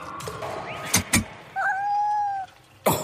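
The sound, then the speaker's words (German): A kitten gives one drawn-out, steady meow, clear, after two sharp clicks and a faint earlier mew; nobody speaks. “oh, süß, guck mal, Katzenbaby.”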